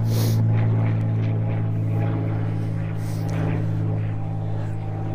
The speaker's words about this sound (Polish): Na chwilę przerwy, bo jakiś samolot tu leci, nie wiem, czy mnie słychać jeszcze dobrze.